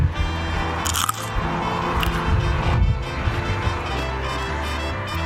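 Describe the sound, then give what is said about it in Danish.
A bite into a very small, crunchy pickling cucumber (a Danish school cucumber) during a vegetable tasting gives a sharp snap, followed by several seconds of wet, crackling chewing with steady crunches and smacking, with no speech over it. “Se, og det er sikkert godt, når jeg begynder at, at smatte her. Men vi kan få lyden.”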